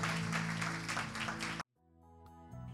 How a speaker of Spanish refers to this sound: Y ahora quiero invitarte a que le demos un fuerte aplauso a todas las personas que recibieron a Jesús en su corazón en este día.